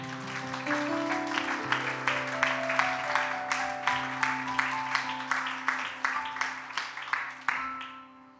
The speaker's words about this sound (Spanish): Qué bueno ha sido Dios. Dale un aplauso, vamos a darle un aplauso.